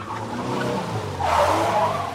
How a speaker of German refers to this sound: bin ich ins Auto gestiegen und auf tiefen Kastel geflitzt.